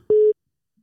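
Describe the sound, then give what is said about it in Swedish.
A single steady electronic busy tone beeps once for about a quarter second, loud and clean, followed by silence as the call fails to connect. “Ska jag koppla in honom eller? kör. Ska se om det går.”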